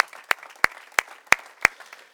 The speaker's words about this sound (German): Und wir wollen diese Menschen wie jeden Sonntag mit einem kraftvollen Applaus bitte sehr begrüßen heute Morgen.